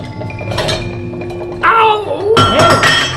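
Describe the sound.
A metal pot lid clinks and rattles in bursts over a steady bubbling simmer of boiling water in a pot, fairly loud, with background voices briefly audible.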